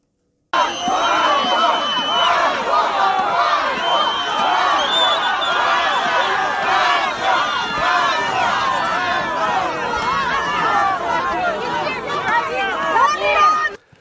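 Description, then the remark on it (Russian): An angry crowd at the city hospital in Volokolamsk, Moscow Oblast, shouts and yells nonstop while pelting Governor Andrei Vorobyov with snowballs, many overlapping voices forming a loud, chaotic roar that holds steady for the whole stretch, with no single voice standing out. “Приехавшего в Волоколамск губернатора Московской области Андрея Воробьева толпа у гор больницы забросала снежками.”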